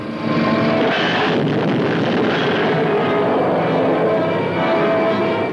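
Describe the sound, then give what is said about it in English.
A loud, sustained roar of a diving airplane's engine fills the whole stretch, a dense droning whine that stays intense throughout, with no voices. “Suddenly, a plane dives to death.”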